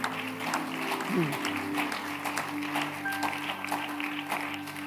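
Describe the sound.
An audience claps for the Lord steadily for the whole stretch, a dense, even patter of many hands, with some voices and a low sustained tone running beneath it.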